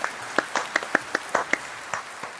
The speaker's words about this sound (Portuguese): Salva de palmas, editor.